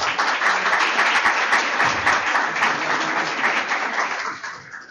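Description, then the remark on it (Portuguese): An audience applauds steadily to welcome the coordinator of the postgraduate program in Mediation and Conciliation at Faculdade A6 at the opening of an evening event, dense overlapping claps forming a loud, continuous wash of noise that holds for several seconds before thinning out and fading at the end. “Uma salva de palmas.”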